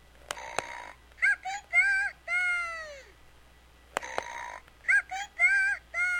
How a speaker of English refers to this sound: is the this is the a new release of the same DVD, but on the sound series, and you, it has little buttons on the cover that, that play Peppa Pig sounds. So listen. So here are some Peppa Pig sounds, just so that you so you hear.